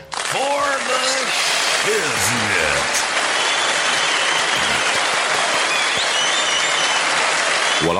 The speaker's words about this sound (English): Now, put your hands together